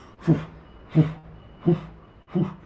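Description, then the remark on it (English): A voice imitates the helicopter blades overhead from the opening of the film Apocalypse Now, with four steady, evenly spaced breathy, voiced pulses, low-pitched and moderately loud, with short quiet gaps between them. “and it's the sound of the helicopter blades above them.”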